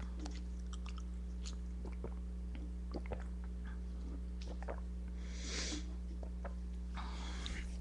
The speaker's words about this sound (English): And um, I'm just gonna take another sip of drink.